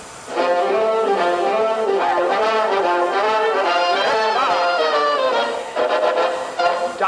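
A band plays a lively instrumental intro, bright horns carrying a bouncy melody over steady backing, loud and close throughout with no singing yet.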